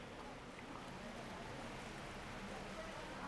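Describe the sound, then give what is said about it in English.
A steady, soft hiss of rain falling outside, even and continuous throughout with no breaks, heard at a low level. “God, thank you for the rain.”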